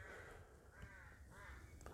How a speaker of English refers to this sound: Fucking crows are putting me off again. I don't know if you can pick them up here, but the place is alive with crows down where I am.